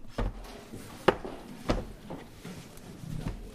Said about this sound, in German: Man hört ein leises Flüstern, das Blättern von Buchseiten oder das leise Klackern, wenn Bücher oder auch CDs ins Regal geräumt werden.